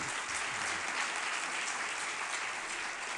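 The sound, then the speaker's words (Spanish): Steady, dense applause from a crowd, a continuous crackle of many hands clapping at an even level throughout, with no voices rising above it. “No, no aplauda, no, no.”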